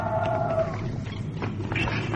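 Loud, deafening roars of monstrous creatures, rumbling with a growling low end and a brief tonal wail at the start, continuous, with no talking.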